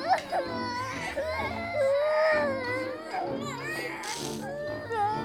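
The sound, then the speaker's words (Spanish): Several children cry and shout at once in a chaotic, high-pitched clamor, with wailing sobs and frightened yelps overlapping continuously, loud. “Güey, ¿y no pensaste que que tal vez están asustados por tu traje todo ese chafa de payaso.”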